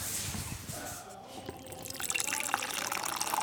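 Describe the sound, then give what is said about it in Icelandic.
Coffee pours steadily into a cup, a bright splashing trickle that rises in pitch as it fills, with faint clinks and light movement around it. “Kaffi? Já, takk.”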